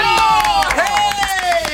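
A few people give a short, scattered round of clapping, close and fairly loud, over a sustained tonal sound like a musical jingle playing underneath.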